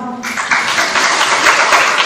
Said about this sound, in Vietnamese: nãy giờ quý phật tử vỗ tay chính là chấp nhận được được không nha